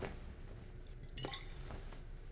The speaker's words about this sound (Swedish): Efter två rejäla klunkar av den förvånansvärt friska vätskan är glaset tomt.